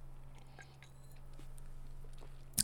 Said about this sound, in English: Sorry, I just took a sip. It's delicious. Um, I don't like whiskey a lot on its own. I have a hard time just sipping it straight. Uh, but man, is it good with a little bit of ginger ale in it.